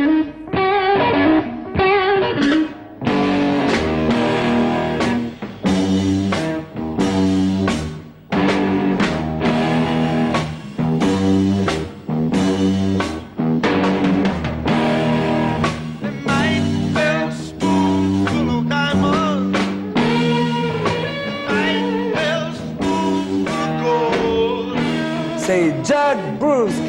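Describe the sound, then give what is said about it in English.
A loud blues song plays continuously, with a strong vocal and wailing harmonica over a gritty, distorted electric band and a steady, heavy groove. “… is …'s song. So let's listen to ….”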